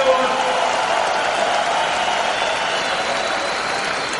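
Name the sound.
audience applause ovation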